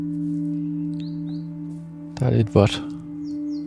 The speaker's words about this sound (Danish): Fuglene kvider.